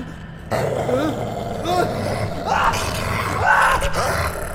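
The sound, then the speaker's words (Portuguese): Several deep, rumbling growls and snarls overlap continuously as three white lions emerge from thick mist and charge at a man, growling aggressively, loud and sustained throughout with rough roaring swells. “De repente, ele é envolvido por uma névoa espessa e de dentro dela surgem três leões brancos que partem para cima dele.”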